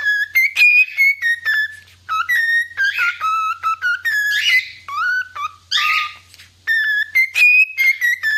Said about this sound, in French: Une perruche qui a sans doute beaucoup trop entendu la musique de Tetris dans sa vie.